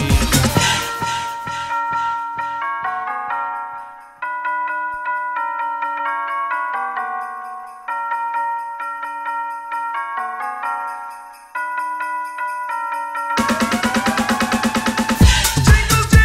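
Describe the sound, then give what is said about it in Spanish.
Bright, repeating bell chimes ring out in a steady melodic pattern over a house dance beat from a 1996 Christmas-season track, loud, before a dense, fuller section of music kicks in near the end. “Estas campanadas rollo house que te pinchamos aquí en Remember 90.”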